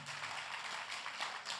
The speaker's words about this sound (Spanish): Den un aplauso al que vive para siempre.